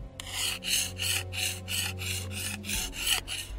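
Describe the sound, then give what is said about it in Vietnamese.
A blade (a dao) being sharpened outside the room: about eight steady, rhythmic metal scraping strokes in quick succession, each a harsh rasp, over a low background hum. “Là mài đao Trường quốc nghĩa nín thở Tự hồ cũng nghe được Ngoài phòng truyền đến Một tràng tiếng kim loại cọ sát Thanh âm không lớn lại đứt quãng Khi có khi không”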